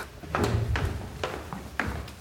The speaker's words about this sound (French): Par une journée d'hiver, nous poussons donc la porte du café de la gare.